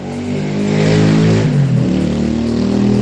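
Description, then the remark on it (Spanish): A motorcycle passes by, its engine rising to a loud buzzing roar and then dropping in pitch as it moves away, with no voices over it. “Permítame que ahí va una moto, señores, pasando.”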